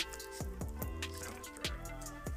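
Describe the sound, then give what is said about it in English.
Someone drinking water in steady gulps, four or five swallows spaced about half a second apart with faint wet sounds between them, and no talking. “Oh man, that water's good.”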